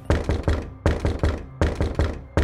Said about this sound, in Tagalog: Lalong lumakas ang katok. Hindi ito humihinto.